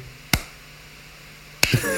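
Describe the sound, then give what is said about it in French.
Two slow, isolated hand claps more than a second apart, a voice-free imitation of feeble applause that grew weaker after each piece played; each clap is sharp, with near silence between them. “Et c'était drôle parce qu'à chaque morceau, il y avait des applaudissements, mais de moins en moins forts.”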